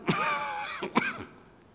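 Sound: coughing and throat clearing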